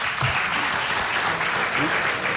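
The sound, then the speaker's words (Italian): Steady, dense applause from an audience in Venice for a film in competition directed by Mario Martone, a continuous wash of many hands clapping, with faint voices murmuring underneath. “Beh, devo dire che l'applauso, oltre che essere sincero, è veramente, è veramente meritato.”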